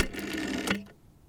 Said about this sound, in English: Quick, the number she gave me. Time to just plug it into my rotary phone. Let's see here. Five. Five.